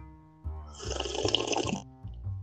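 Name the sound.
sipping hot tea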